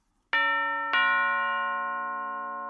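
A doorbell at Ebenezer Scrooge's front door chimes twice in a classic ding-dong, two bright strikes about half a second apart whose tones ring out and slowly fade, clear with no voices.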